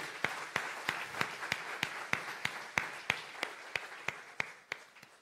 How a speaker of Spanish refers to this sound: Damos un aplauso a Jesús por eso.